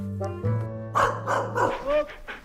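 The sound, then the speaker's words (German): A small lap dog yaps several times in quick, sharp bursts, fairly loud, over a steady low hum that fades out partway through. “Man mische eine Mini-Prise Wolf mit ganz viel Niedlichkeit und herauskommt der Schoßhund.”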